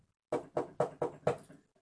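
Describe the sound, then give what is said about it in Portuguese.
Five firm knocks on the door of a golden castle, just after dawn, land in a quick, even rhythm, then a softer sixth trails off. The knocking is fairly loud, with no voices. “Bateu de novo.”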